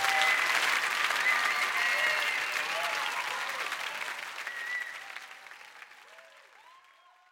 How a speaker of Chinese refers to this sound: 随着掌声和呐喊声的退去，这个一头红发、穿着皮裤的火辣女孩吹起了她的口琴前奏，在口琴的映衬下，本就热情似火的旋律更具异域风情。